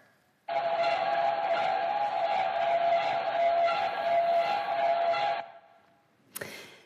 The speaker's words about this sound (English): But that can be tricky sometimes because, well, here's the sound of a ship passing by, recorded underwater.